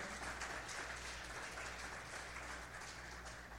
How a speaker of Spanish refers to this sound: Sea bienvenido. Denle un aplauso. Vamos a recibirlos con un aplauso.